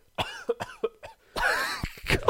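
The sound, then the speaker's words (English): A person who is ill coughs several times in quick, uneven bursts, fairly loud, with a longer harsh, raspy cough in the middle and short breathy coughs around it. “It's just your face when you coughed.”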